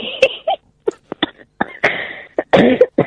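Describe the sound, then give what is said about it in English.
A burst of repeated coughing, several harsh, uneven hacks with brief gaps between them, ending in a longer, rougher fit of coughs. “That's it. Cough it up.”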